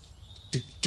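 Two sharp knocks of a walking stick on the floor, a short greeting tap as when people meet on the street, fairly loud, spaced about a third of a second apart over a quiet background with no talking.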